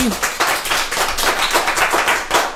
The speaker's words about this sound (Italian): Nuovo applauso.